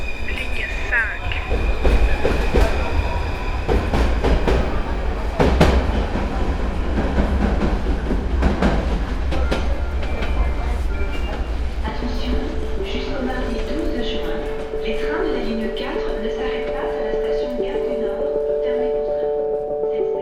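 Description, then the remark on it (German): A Paris Métro line 5 train toward Bobigny–Pablo Picasso rumbles along with a loud low-frequency roar, rattling clicks, and steady hum, then tonal motor whine and squealing wheels rise as it slows; a faint voice or two murmurs underneath. “Dann steige ich hier mal um, Richtung Bobigny Pablo Picasso. Bobigny Pablo Picasso. Über Porte de Pantin. Linie M5.”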